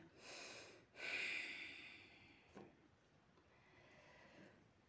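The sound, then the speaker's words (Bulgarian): Slow, soft normal breathing: a gentle inhale followed by a longer, slightly louder breath out that fades into quiet, with no one talking. “Продължаваме с нормално дишане.”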